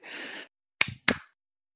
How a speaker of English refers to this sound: can't say Fraggle Rock without the claps. That's that is true. That is true. I forgot the claps, and I feel uh, I should have my Fraggle Rock license taken away.